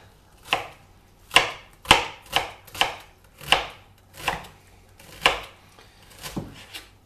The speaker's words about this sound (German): Auch wieder halbieren, schälen, von oben einschneiden bis zum Strunk, aber nicht ganz bis zum Ende. Ganz dünn und dann quer dazu in Würfelchen schneiden.